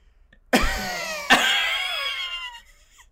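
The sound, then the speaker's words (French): A voice imitates a sputtering, coughing engine: two sharp, raspy bursts about a second apart, each trailing into a rough, ringing rattle that fades after a couple of seconds. The bursts are loud. “elle se met à tousser, elle se met à tousser. comme un fumeur de trois paquets du Montréal elle se met à tousser comme si elle a travaillé toute sa vie à Tedford Mines.”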